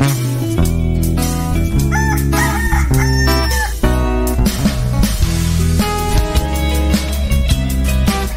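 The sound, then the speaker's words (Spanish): A rooster crows a few times with rising, drawn-out calls, set against loud, steady background music that carries on throughout. “Regresamos antes de que cante el gallo aquí en tu programa Al que Madruga, con el padre ….”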